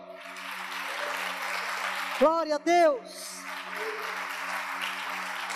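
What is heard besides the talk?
audience applause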